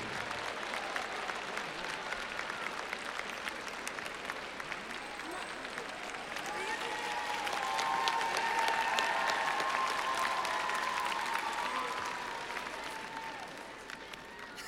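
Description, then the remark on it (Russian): An audience at a stage show applauds steadily for about fifteen seconds as two performers come on stage, a dense patter of clapping that swells midway with some cheering voices mixed in, then eases off slightly toward the end. “Им обоим аплодисменты!”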